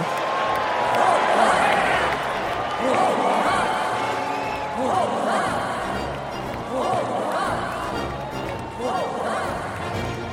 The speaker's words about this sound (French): Et quelques secondes plus tard, tout le monde scandait son nom.